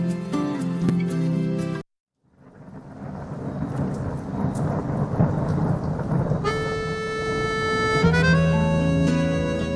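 A thunderstorm with steady, loud rain hiss and deep rumbling thunder begins after a brief musical tone and a moment of silence; sustained music notes rise over the storm later.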